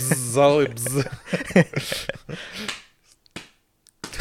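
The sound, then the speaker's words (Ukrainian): Voices talk and laugh, then fall quiet as a few sharp, sparse finger snaps click out near the end as applause for a joke, not loud. “А, ти звук про. Чи що? Це... Аплодисмент.”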